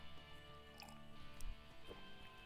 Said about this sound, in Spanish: Sorbito el café.